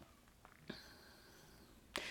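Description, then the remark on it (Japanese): A cat, the neighbour's cat Vegas, meows once in a faint, drawn-out, high-pitched cry, framed by a couple of soft clicks or rustles in otherwise quiet surroundings. “ごめんね今ポッドキャスト撮ってるのねなんかね隣のね猫がねあのベガスちゃんっていうねラスベガスのベガスちゃんっていう子なんですけど「It's okay I'll be there 」かわいいニャーニャー言ってる”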